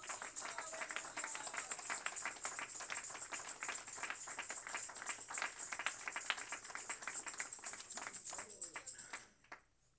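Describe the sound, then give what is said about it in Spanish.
A crowd claps steadily for about nine seconds, applauding in praise of God at a preacher's request: a dense, sustained patter of many hands that fades out abruptly near the end, with faint voices mixed in. “Dele un aplauso por un minuto, hermano.”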